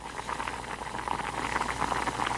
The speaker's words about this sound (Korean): 저는 대답 대신 말없이 주방에 가서 라면을 끓이기 시작했죠.